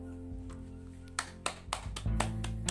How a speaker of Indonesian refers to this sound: tepuk tanganin diri sendiri.